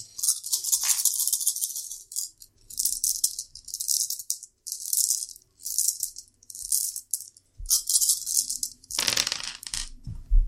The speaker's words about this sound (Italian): aspetta innanzitutto devo ritirare i dadi